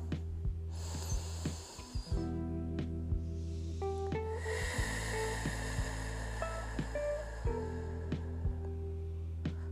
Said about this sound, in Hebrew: וכמו שאני תמיד אומרת, לנסות לדמיין שאנחנו נושמים דרך האף אור באיזה צבע שתבחרו. בצבע שאתם הכי אוהבים. תמלאו את כל הגוף שלכם באור הזה ותפלטו דרך הפה את כל מה שמפריע לכם. אז בואו ניקח נשימה ראשונה.